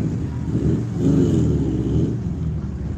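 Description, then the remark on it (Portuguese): An old Volkswagen Kombi van engine strains and accelerates as the driver tries again to get it moving, its low, throaty rumble swelling and rising in pitch before settling into a steady drone. No one speaks. “Se, rapaz, se a Kombi for agora, a mulher vai se sentir mal.”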